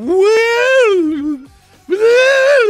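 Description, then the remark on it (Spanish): A voice imitates the sea organ in Croatia, tubes of different sizes set in holes along the shore where the waves hit, sounding as the waves arrive: two long, loud, wavering hooted tones, the first gliding up then sinking low, a brief pause, then a second rising swell. “unos hoyos en, las orillas donde pegaban las olas y les puso tubos que eh, tenían así como diferentes tamaños y cada vez que llegan las olas hacen así como que...”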